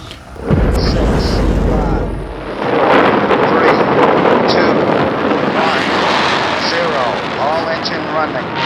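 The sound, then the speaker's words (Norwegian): A voice mimics a rocket lifting off into space with a loud, continuous rumbling and hissing roar that starts abruptly and holds steady, with breathy, noisy texture and slight swells throughout. “Sånn hadde vel kanskje hørtes ut når I og du satt i vår rakett og ble sendt ut i verdensrommet.”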